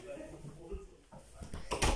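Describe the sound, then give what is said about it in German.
A door is pushed shut, a couple of rattling knocks and a louder thump near the end, with faint indistinct voice-like sounds and background noise before it. “Ah, sorry, ich muss gerade die Tür zu machen.”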